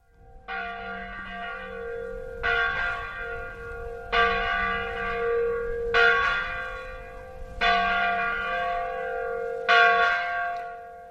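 A church bell tolls loudly and steadily throughout a village, calling parishioners to mass 30 minutes before it starts, about six resonant strikes roughly two seconds apart, each ringing out and overlapping the next, with no voices.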